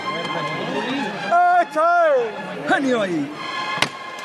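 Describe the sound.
A single sharp knock of the foreman's hammer, calling the procession float of the Nazareno de las Penas, rings out near the end at the Plaza de la Campana, following stretches of loud, drawn-out shouting voices.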